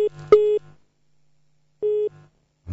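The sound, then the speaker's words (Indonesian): A telephone busy tone after a call disconnects sounds in two steady beeps about a second and a half apart, each a clear, moderately loud electronic tone, with a faint click at the start and no voices. “terputus mohon maaf uh, kami uh, mengalami enam koneksi yang terputus dari telepon”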